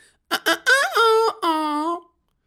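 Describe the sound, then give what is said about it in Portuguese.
A voice mimics an x-ray machine taking x-rays: two quick clipped bursts, then two longer droning tones that rise and dip slightly in pitch, fairly loud. “Ah, ah, ah, Isto é o som da máquina de raio-x.”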